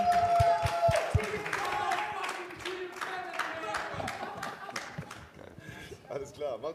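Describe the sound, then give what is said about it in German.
A crowd in a hall breaks into sustained applause for two guests, dense rapid clapping mixed with whoops and shouted cheers, steady for several seconds and tapering slightly toward the end. “Deswegen großen Applaus”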